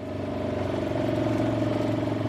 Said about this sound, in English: Jim Galloway takes me on a tour of some of the land on an all terrain vehicle, so we can easily scale hillsides that at this time of year are lush and green.